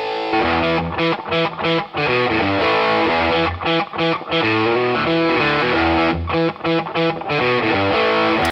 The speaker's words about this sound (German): Der äh, Sound von … fehlt noch auf dem Bus, wo er die Gitarren zusammengefasst hat, also das Close Mic und das Raummikrofon. Da hat er noch einen, einen weiteren Hall draufgepackt.